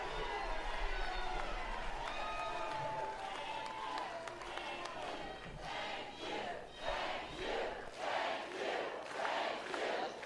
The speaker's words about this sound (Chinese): 民众大喊：“谢谢你！”